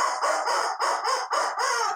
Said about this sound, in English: A throwback. The rubber chicken says.